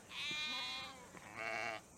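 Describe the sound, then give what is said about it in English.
A sheep bleats twice, two loud, wavering cries with a short pause between them, the first longer than the second, and no one speaking. “Stay with the sheep.”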